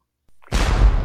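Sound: cannon shot sound effect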